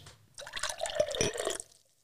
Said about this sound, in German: werden uns jetzt nur ein Gläschen Wein schenken.